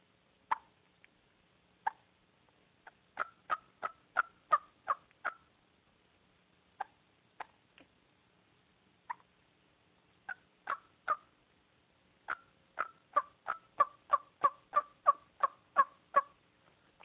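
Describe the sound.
Soft hen turkey tree call yelps, a wake-up call from a hen up in a tree, short clucky notes delivered in scattered singles and then in quick, even runs of several, quiet with no talking.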